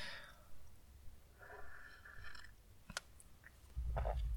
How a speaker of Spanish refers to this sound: Eh, pausa para un trago de café, este sí es café.